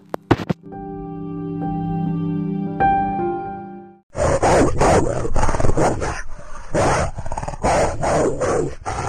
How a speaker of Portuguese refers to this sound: De repente, as luzes piscam e ela vê três cachorros famintos. Eles se aproximam lentamente e Chapeuzinha fica escorada num muro. Os cachorros começam a latir e rosnar.